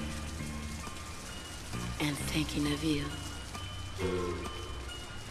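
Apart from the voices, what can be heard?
rain falling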